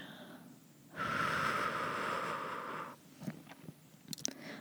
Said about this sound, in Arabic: نسمع التنفس تاعي نسمع كي التنفس تاعي كي ندخل الهواء وكي يخرج